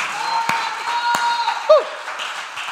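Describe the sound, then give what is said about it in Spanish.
A crowd applauds steadily and loudly, a dense wash of clapping, with a couple of sharper claps and a brief shout or whoop cutting through midway. “Dale un aplauso fuerte.”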